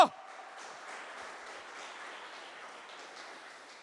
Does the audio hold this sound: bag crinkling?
no